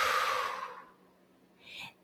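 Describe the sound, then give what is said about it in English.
A person does a simple in-and-out breath: a long, breathy exhale starts loud and airy, then fades away, followed after a short pause by a quicker, softer intake of breath, with no talking. “One is that you can just simply do an in and out, right? So, and you just exhale.”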